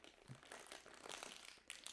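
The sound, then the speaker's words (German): Crisp crinkling of plastic packaging being pulled and torn open, a continuous rustle with sharper crackles and bursts throughout the two seconds, no voices. “Hört ihr das? Ja doch, das kann man aufreißen.”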